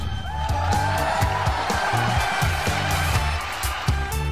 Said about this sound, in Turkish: Mehmet Ali'ye geliyor alkışlar.